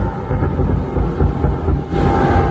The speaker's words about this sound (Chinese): 南韩联航德威航空一架班机十号晚上准备要降落仁川机场时，不料飞机右侧引擎竟然冒出火光。 기내에는타는냄새까지나면서불안은고조됐습니다 甚至从地面往上看，还能听到班机发出阵阵爆炸声。